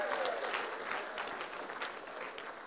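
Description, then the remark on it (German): A crowd at an evening event applauds steadily for people who came along spontaneously, a dense patter of many hands clapping at an even, fairly loud level throughout, with faint voices mixed into the noise. “Applaus für die, die äh, ganz spontan die noch mitgenommen haben heute Abend hierher.”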